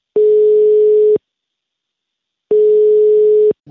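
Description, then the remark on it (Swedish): An outgoing call's ringing tone as someone phones a workplace: a steady, clear electronic beep lasting about a second, a pause, then a second identical beep, with a third just starting at the end. No voices. “Jag tänker att jag provar att ringa på lite jobb.”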